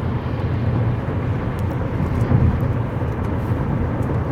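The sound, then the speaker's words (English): A big truck engine rumbles steadily about a foot away, a loud, continuous low drone with no pauses and no voices. “It's probably because I'm a foot away from a big old truck.”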